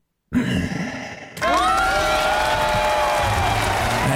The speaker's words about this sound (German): Ah, so viel Applaus ist gar nicht notwendig.